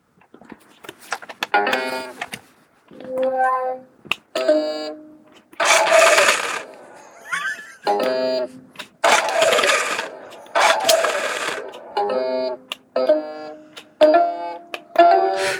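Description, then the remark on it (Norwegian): An Uno Extreme card-shooting machine plays short electronic tone bursts that alternate with loud, noisy mechanical whirs as it spits out cards, in an irregular stop-start pattern with no talking. “Jo, dette er en maskin som heter Uno Extreme. Ja, når du spiller Uno, så er det et, en maskin som spytter ut kort.”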